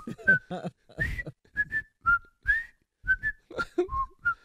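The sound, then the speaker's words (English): A whistled TV theme tune plays clear, a series of short melodic notes in a bouncy rhythm, with brief breaths and low voiced sounds between phrases. “I knew the whistle was coming.”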